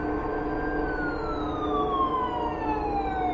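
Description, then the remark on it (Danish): Police and rescue vehicle sirens wail steadily in a residential neighbourhood in the morning, their tone sliding slowly downward as if passing by, over a constant rumble of engine and road noise, fairly loud. “Hylende sirener gennemskar stillheden i kvarteret den morgen, da politi og redningsfolk mødte talstærkt op.”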